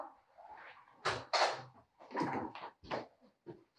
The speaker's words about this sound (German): Schatz, machst du bitte die Tür auf?